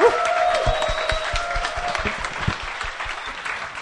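A crowd applauds steadily, many hands clapping in a dense, continuous patter with a few sharper claps standing out, holding strong throughout.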